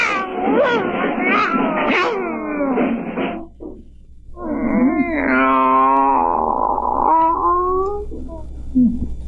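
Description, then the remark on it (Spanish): Cats meow and caterwaul loudly: a burst of rising, wavering yowls, a short pause, then a long, drawn-out wailing cry that bends in pitch before trailing off. “Gatos y gatos.”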